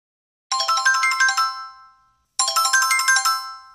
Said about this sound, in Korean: 그날 조금 시간이 지난 뒤에 다시 전화벨이 울린다.